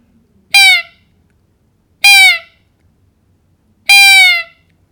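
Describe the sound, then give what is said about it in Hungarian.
A roe deer doe in the rut calls a buck with three thin, soft, high-pitched plaintive calls, the same call she uses for her fawn, each about half a second long, evenly spaced about two seconds apart, clear against a quiet background. “A suta hívja a bakot.”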